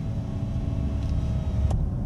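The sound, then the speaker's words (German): Steady low road rumble inside a moving electric car set to relax mode, with faint sustained harmonic electronic tones humming above it, a subtle synthetic sound texture that reacts to acceleration, continuous throughout with no voices. “wie du merkst, es gibt diese sehr subtile Klangtextur, die auch auf meine Beschleunigung einfach reagiert, aber in einer anderen Art und Weise.”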